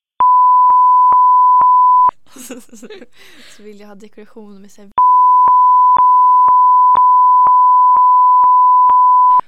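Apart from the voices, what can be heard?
electronic beeping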